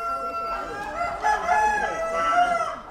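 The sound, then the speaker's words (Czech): Chickens of the Czech golden-spangled breed cluck steadily while a rooster crows with drawn-out, tonal calls, all moderately loud, filling the short stretch without any talking over it. “Eh, nejdůležitější je, že tady vůbec máme genové rezervy, což znamená česká slepice zlatě kropenatá, která už byla známá z 12. století.”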